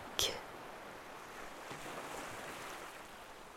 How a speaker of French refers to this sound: Le fracas des vagues s'assourdit en un balancier arythmique.